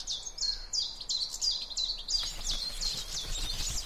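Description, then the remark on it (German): Hungry baby sparrows complain for food, chirping insistently in a rapid, repeated series of high, shrill calls, fairly loud, growing busier and overlapping in the second half. “Hungrig beschweren sich die anderen Vogelkinder.”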